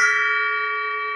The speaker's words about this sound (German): dann habt ihr halt so einen schönen Gong. Und die kann man ja auch kaufen, aber die kann man sich auch wunderbar aus kaputten Becken dann noch einfach, sag ich mal so, ja, schnitzen lassen.